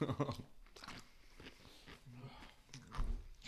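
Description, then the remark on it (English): Crunching of an ice cube being chewed into a microphone, with a run of sharp, irregular crunches and grinding bites, with a few brief vocal murmurs in between. “I'm chewing an ice cube because I was dying.”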